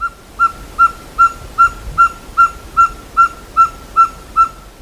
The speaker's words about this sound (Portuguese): E uma das formas de diferenciar essas duas espécies é justamente a partir do canto. Então vamos ouvir o som da caburé.